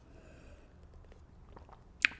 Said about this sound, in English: I'm going to take a sip of the old hot chocolate.